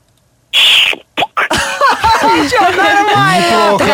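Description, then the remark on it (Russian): A person vocally imitates a champagne cork popping from a bottle neck: a hissy burst and a couple of sharp pops, followed by a long stretch of squeaky, creaking, warbling voice noises, loud. “Вот так выскакивает пробка со скрипом из бутылки и э, вылетает из горлышка.”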